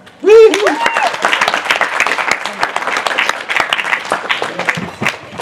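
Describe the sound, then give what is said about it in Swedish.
An audience gives itself a big round of steady, dense applause lasting several seconds, opening with a brief high whoop or cheer before the clapping carries on at an even, loud level. “Ge er själva en stor applåd.”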